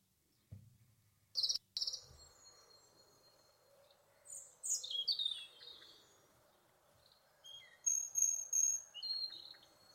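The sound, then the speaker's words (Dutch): A European robin sings short, high, thin warbling phrases in separate bursts, with a steady background hum of crickets or insects and a low rumble near the start. “Nee, dan is het een roodborstje.”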